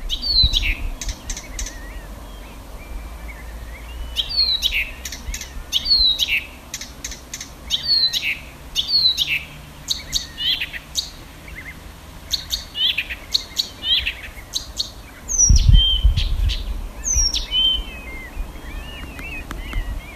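A songbird sings in a dense thicket beside a sandy road, recorded by phone from about seven to eight metres away, in a steady run of short, scratchy, chattering phrases with brief pauses, a low rumbling thump near the end, and no voices.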